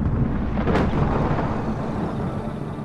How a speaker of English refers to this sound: One thing we do know about Venus is that it has lightning. So you might hear thunder.